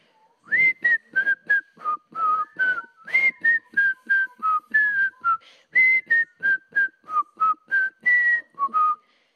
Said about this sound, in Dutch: Ik ga het een keer voor fluiten hoe het stukje gaat. En dan mag iedereen proberen mee te doen.